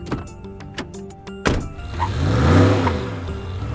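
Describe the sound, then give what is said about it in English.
A few clicks and a loud thunk of a truck door slamming shut as a man gets in to drive home, then the engine cranks and turns over, its low rumble swelling as it revs. “Jonathan hopped into the truck and headed home”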